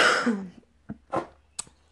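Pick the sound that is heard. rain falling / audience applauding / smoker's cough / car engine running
smoker's cough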